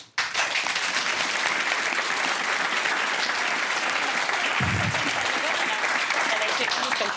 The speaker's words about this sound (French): Et juste avant d'en parler, je tiens à la féliciter, ce que le président Macron n'a pas encore fait. Ah, bravo J'aimerais qu'on l'applaudisse.